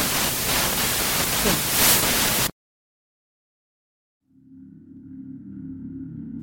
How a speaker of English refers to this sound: At this point, the recording became too degraded or suffered too much interference to be of use.